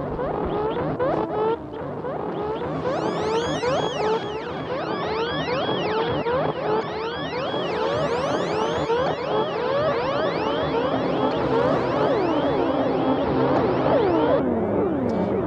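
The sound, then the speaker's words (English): A harsh, heavily bit-crushed looping sound, with the bit rate brought very low, fills the whole stretch, thick with gritty swooping tones that warble up and down continuously at a steady, loud level, with no one talking. “And you can see when you bring it really low in the bit rate, it gets pretty, pretty nasty.”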